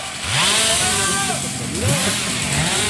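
A chainsaw runs loudly throughout, its engine whining and revving up and down in pitch as a worker cuts wood a little way off during a rescue training exercise, with a steady harsh buzz underneath.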